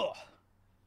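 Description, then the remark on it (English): A single quick sneeze, a sharp burst that fades within a fraction of a second into near silence. “Bless you.”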